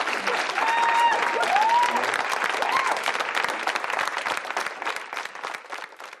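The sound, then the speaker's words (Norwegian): Sustained applause from Oslo AUF members for nominated candidates Prablin Kaur and Vegard Vennesland, dense rapid clapping that stays loud throughout and eases off slightly toward the end, with a few brief whistles or cheers rising above it early on. “I går kveld ble Prablin Kaur og Vegard Vennesland klappet frem av sine egne i Oslo AUF.”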